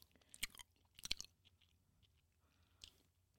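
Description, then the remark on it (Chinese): Crunchy chewing of Wai Zui Chicken (歪嘴鸡) fried chicken, with a few sharp crisp bites standing out among softer, irregular mouth sounds, then a final crunch near the end; no talking. “我们现在听的是歪嘴鸡的咀嚼声。”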